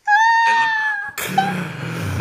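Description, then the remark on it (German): A loud cat meow with a long, steady tone, followed right away by a rougher, raspier second cry. No one speaks. “Ja, weil, weil die, wenn die halt miaut dann.”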